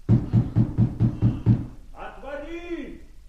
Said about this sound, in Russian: Отвори! О. Стучит кто-то.